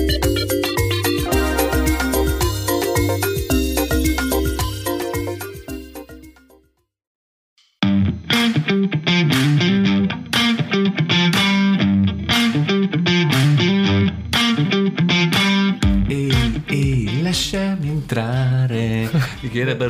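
A recorded 1992 cover version of a song plays back at full volume, fades out into a brief silence, then a new track kicks in with a steady, punchy drum beat and layered instruments.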